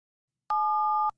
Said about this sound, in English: Stop pressing the phone button. Stop dialing, please, for the love of God.